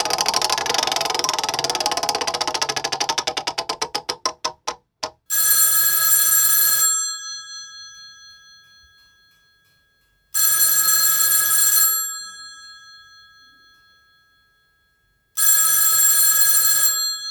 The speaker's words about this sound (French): Bon, bah là, bizarrement, hein, c'était euh, aussi un son euh, qu'on peut reconnaître. Tout le monde le reconnaît, hein, c'est la sonnerie du téléphone à cadran qui te donne envie de tuer quelqu'un.